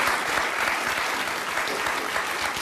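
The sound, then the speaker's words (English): An audience of liberals applauds steadily, many hands clapping at once in a dense, even wash of sound that holds a constant level throughout with no voices rising above it. “So let's, all the liberals are clapping.”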